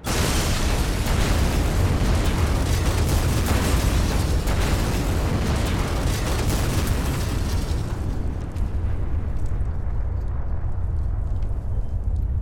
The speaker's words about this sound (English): the other survivors heard the blast and saw the large cloud of debris rise above the trees